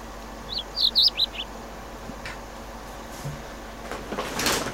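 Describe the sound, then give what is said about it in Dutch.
A lark sings a brief burst of four or five high, quick chirping notes early on, then falls silent over steady background hiss, with a soft rustling swell near the end. “Want leeuwerikjes zijn wel matige dieren.”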